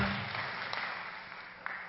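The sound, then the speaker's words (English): A crowd claps steadily in a dense, sustained wash of applause for about two seconds, fairly even in loudness with a few sharper claps standing out, and no voices. “I'm not saying this for the applause, but I've lost a couple of pounds.”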